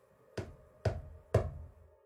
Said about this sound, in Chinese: 正在这个时候，门外传来了咚咚的敲门声。